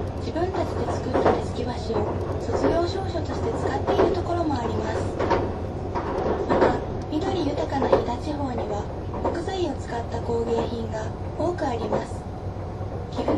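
A steady low rumble and hum of the engine and motors of the HC85 series hybrid limited express train Hida No. 1, running from Nagoya to Takayama, Japan, heard from inside a Green Car, with a continuous onboard announcement spoken over it throughout.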